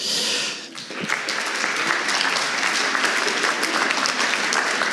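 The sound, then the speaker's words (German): An audience claps steadily to welcome Reto Scherderleib of the SVP: a dense crackle of many hands that swells after a brief dip and holds loud and even, with no one speaking over it. “Reto Scherderleib von SVP, herzlichen Applaus.”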